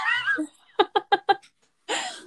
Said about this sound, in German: Ähm, aber es kann sein, dass jemand rein will und dann könnte das sein, dass ihr sie hört. Weil wenn die nicht reingelassen wird, egal welche von den beiden Katzen, dann werden sie sehr laut und beschweren sie sich.